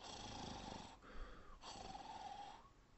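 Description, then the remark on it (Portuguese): Two long, rasping snores follow each other with a brief pause between them, each a drawn-out, buzzy breath: someone snoring at bedtime, the only noise in the silence. The sound is fairly soft, with no talking. “O único barulho era a … roncando.”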